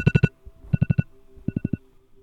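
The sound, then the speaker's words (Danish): A wake-up alarm rings for the second time, at 6:40 in the morning, in three quick bursts of bright, repeated electronic beeps, each burst of three or four tones, the last slightly softer, with no voices. “Nu er klokken 6.40, og alarmen ringer for anden gang.”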